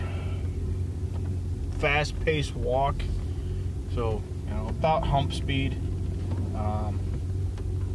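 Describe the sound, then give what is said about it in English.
A pickup truck engine, just started up after a gym session to get ready to go, idles with a steady, low droning rumble that holds throughout, while a man talks over it. “As in, literally, I just started up the fucking truck to uh, fucking get ready to go.”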